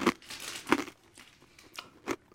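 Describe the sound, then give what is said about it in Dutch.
Quiet crinkling of a fortune cookie's paper wrapper being opened, in a few short rustling bursts with brief pauses between them and no talking. “Zo krokante koekjes, papiertjes die opengaan gaan en al.”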